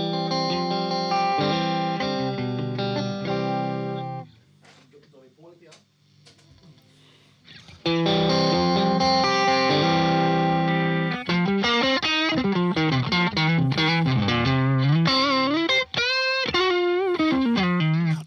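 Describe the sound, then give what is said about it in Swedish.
A fuzzy, overdriven electric guitar played through an overdrive pedal plays sustained chords, drops to quieter playing for a few seconds, then returns loud with busy gliding lead lines and bends, dense. “Det, det låter som att du har en overdrive och en fast typ parallell, tycker jag.”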